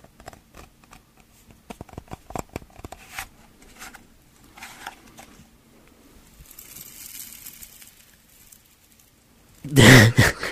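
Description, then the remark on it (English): ASMR-style handling of rocks: irregular dry clicks and taps, a soft gritty scraping stretch, then a sudden loud rough clatter near the end. No voices. “Well, here's how the rock one as well.”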